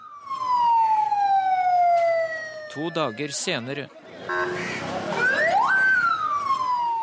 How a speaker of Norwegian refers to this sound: Igjen er ambulansen på vei med en framtredende person som er blitt angrepet på brutalt vis.